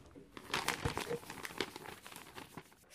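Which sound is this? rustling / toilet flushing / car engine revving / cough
rustling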